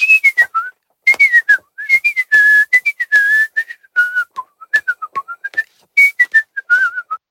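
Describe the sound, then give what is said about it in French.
A quick, lilting folk melody in a high, pure tone like a small Sicilian flute, a kind of pipe, probably whistled in imitation: short bouncing notes in rapid phrases, fairly loud, with no talking. “C'est avec un, instrument, une flûte sicilienne qui fait”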